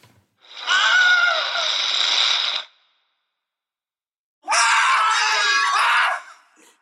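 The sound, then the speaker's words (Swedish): Two loud screams heard alone, separated by a pause of about two seconds: first a long, sustained scream from a documentary, then a second shorter, wavering cry, the Wilhelm scream stock movie effect. “vi kanske ska ta och lyssna på, på Johaug dokumentärskriket jämte tätt följt av ett eh, sånt Helm Scream, Wilhelm Scream”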